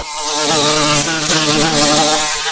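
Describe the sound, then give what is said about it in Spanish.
A fly buzzes loudly and continuously, its droning whine wavering slightly in pitch as if bumping against a window pane, with no voices present. “Eres una mosca detrás de un cristal empujando en la misma dirección equivocada.”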